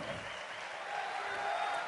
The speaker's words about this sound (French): Merci de faire un tonnerre d'applaudissements pour notre président François Asselineau.